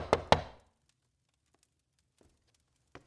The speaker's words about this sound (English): Five days after Mary is taken, Jonathan Corwin knocks on his nephew's door with an urgent message in hand.